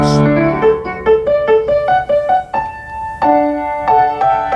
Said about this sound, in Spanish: creo que ahora queréis salvar un gran piano de cola francés del año 1904 que suena así.